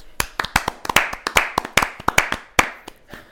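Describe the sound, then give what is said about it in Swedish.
A short burst of hand clapping, sharp crisp claps in a quick, slightly uneven rhythm, like a couple of people applauding together for a few seconds. No one speaks. “Eh, ska vi dra av en eh, spontan applåd till alla som har lyssnat?”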